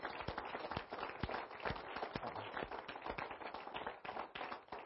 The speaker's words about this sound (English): And as they come, would you give them applause? Show them how much you you appreciate them.